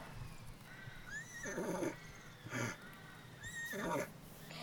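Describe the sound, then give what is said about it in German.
A horse neighs twice in quick succession, each whinny rising and then shaking into a throaty, fluttering call. It stands alone, with no talking over it. “Das ist ja ein Weihhirn. Es kommt vielleicht vom Ross.”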